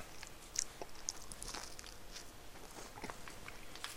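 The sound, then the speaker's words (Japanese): Quiet biting and chewing of a soft round ball-shaped castella sponge cake from Chidoriya Honke, eaten while water boils, with a few small crisp clicks early on and a steady moist chewing rhythm throughout, no talking. “今ねお湯沸かしてる間に1個食べようこのねほんとこれうまいよ丸ボールなんかカステラ円形にしたカステラみたいな感じのものなんだけどねうん完全にまあカステラだなこれ美味しいよ”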